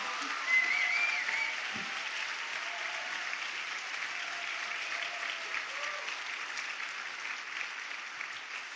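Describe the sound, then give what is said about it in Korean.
A church audience applauds steadily after a call of hallelujah and amen, a dense wash of many clapping hands that holds at a fairly even level for the whole stretch, with faint voices mixed in beneath it. “그래서 어, 저는 그 이 곡을 하기 전에 할렐루야로 한번 제가 할렐루야 하면 여러분도 아멘으로 박수와 함께 해주셨으면 좋겠어요.”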